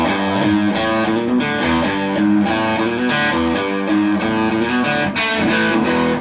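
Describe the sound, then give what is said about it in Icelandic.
A loud, distorted rock guitar riff from a track on an album plays continuously for several seconds, built from repeating chord stabs with a steady driving rhythm and no voices over it. “ef fólk hefur ekki heyrt blötuna og heyrði þið spila þetta, þá er alveg, hvað er þessi görar að hreina þessar blötum, þetta er algjör tutti.”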